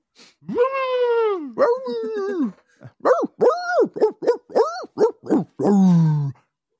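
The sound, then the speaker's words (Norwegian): A muscular 20-kilogram male Staffordshire bull terrier lets out a long, drawn-out yelping howl, then a run of about eight short, tuneful barks in quick rhythm, loud, ending on one longer bark. “det er jo Staffordshire Bulldog. Han, han er jo 20 kilo med ja, bare muskler.”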